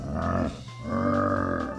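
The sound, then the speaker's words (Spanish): A bear growl sound effect from the video game Banjo-Kazooie: two deep, drawn-out groaning phrases separated by a short pause, rich and buzzing like a low moo, fairly loud with no talking. “Ese es un pinche oso, güey. O sea, un gruñido de tripa.”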